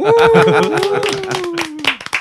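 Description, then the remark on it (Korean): An audience at Kangwon Land claps in brisk, scattered bursts while a long, steady whoop holds over the first two seconds before fading, leaving a few final sharp claps. “박수로 칠까요?”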